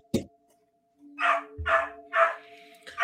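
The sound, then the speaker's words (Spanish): A dog near the speaker's house barks several times in a quick, uneven series, fairly loud, with a faint steady hum in the background between barks. “Ahí eh, se no, no, no, esta vez es, eh, el, perro que está por acá por mi casa.”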